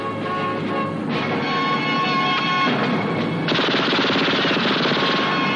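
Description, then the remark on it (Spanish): A machine gun that comes out of one of the front lights of James Bond's car fires in long, loud, rapid bursts after he activates the car's mechanism, the rattling volleys continuous and dense, growing even harsher partway through, over a steady engine-like rumble, with no talking. “Ve unos faros frente a él que le deslumbran, acciona el mecanismo del coche y de uno de sus pilotos frontales sale una ametralladora.”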